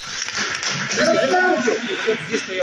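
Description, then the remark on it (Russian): An audience applauds in a hall at a no-rules fighting championship in Khabarovsk on October 23, as OMON riot police burst into the building and lead away some of those present. It is a dense, steady wash of clapping that holds at an even loudness for the whole stretch, with some crowd voices mixed underneath. “Люди в зале аплодируют.”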